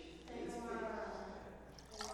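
Water pours out of a jar in a steady splashing stream for about two seconds, fairly loud, with a slight gurgling, rising tone as it flows.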